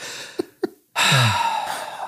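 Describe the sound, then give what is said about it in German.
A voice imitates a deep huffing breath: two quick, sharp intakes, a brief pause, then one long, loud, forceful exhale that rushes out and slowly trails off. “Und dann geht er wirklich noch vorher nochmal ins Bad, guckt nochmal so in den Spiegel, schnauft nochmal so durch.”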